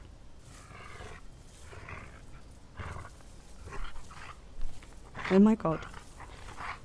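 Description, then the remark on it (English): A wolf growls and snarls in rough, breathy bursts throughout, moderately loud, while a person exclaims in alarm near the end. “It's a fucking wolf.”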